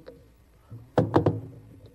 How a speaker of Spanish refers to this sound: Tocamos a la puerta. Tuvimos que empujarla.